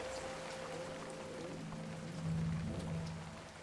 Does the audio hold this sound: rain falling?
yes